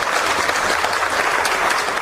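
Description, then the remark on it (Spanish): Loud, sustained applause from a group, a dense crackle of many hands clapping at once that holds steady throughout with no voices above it. “Aplausos fuertes”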